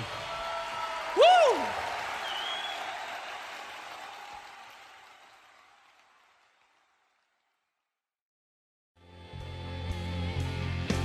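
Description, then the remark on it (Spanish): An audience applauds in a steady, dense clatter with a short whistle-like swoop near the start, then the clapping gradually fades out into a few seconds of silence before another sound begins. “fuerte aplauso para Nacho y Sofía, por favor.”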